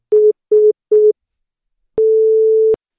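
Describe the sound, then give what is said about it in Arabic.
Three short, evenly spaced telephone beeps ring out, then a single long steady tone of the same pitch after a brief pause, the disconnect signal of a phone call that cut off by itself, loud with no voices. “الو سبحان الله التليفون لحاله بيطفي”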